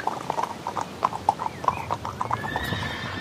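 Horse hooves clip-clop in a steady, fairly quick rhythm of sharp knocks as riders return on horseback to a riding stable, with no talking; near the end a high, wavering whinny rises over the hoofbeats.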